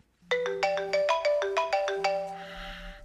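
phone ringtone

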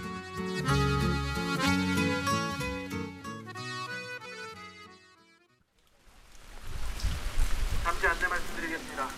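autumn rain falling

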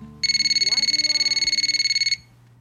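telephone ringing

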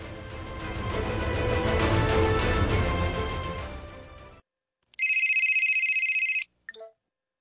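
telephone ringing

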